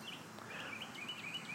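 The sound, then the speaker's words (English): Birds chirp outdoors in a park on a beautiful, not too hot day, in a series of short, high, thin calls repeating every fraction of a second, fairly faint over a steady background hiss, with no one speaking. “And I'm just listening to the birds chirp.”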